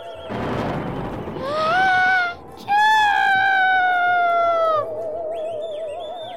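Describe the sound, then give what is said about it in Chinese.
A loud, exaggerated cartoonish sneeze from a giant in a mountain cave: a noisy, thunder-like blast followed by two long, voiced, wailing tones, the second sliding slowly downward, over faint background music. “夸弟打了一个史无前例、超级巨大的大喷嚏。”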